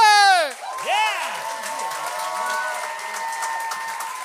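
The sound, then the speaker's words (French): An audience at the Gang Show breaks into loud whoops and cheers welcoming the first comedian, then settles into a steady wash of applause and crowd noise that continues evenly to the end. “Euh, on accueille avec un tonnerre d'applaudissements le premier.”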